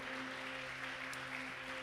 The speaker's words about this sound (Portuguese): Uma salva de palmas para a Divina Trindade, amém? Aleluia!